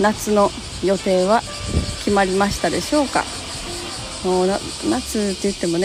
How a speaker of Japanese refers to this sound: ということで今日は蒸し暑いもうセミの鳴き声がもうすごい聞こえてくるようになりましたね。もうでも8月の終わりぐらいまでかな、まあ、でも9月でもまだ結構セミ鳴いてる感じですよね